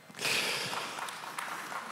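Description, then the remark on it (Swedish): A short burst of applause: dense, hissy clapping starts abruptly, holds steady for under two seconds with a few sharper claps standing out. It is fairly soft, and nobody speaks over it. “Där kom en applåd ja.”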